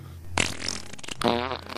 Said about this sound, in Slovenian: ki se je vsled prca, ki je tehnično gledano poskus izenačitve tlaka, vzpostavilo